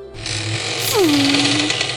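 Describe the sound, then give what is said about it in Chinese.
An iron door, the only exit of a dim, empty space with weeds, creaks open with a long, loud, strained squeal whose pitch slides downward and then holds as a drawn-out groan, over a steady background hiss. “伴随着一声吱呀声，那唯一的出口被打开。”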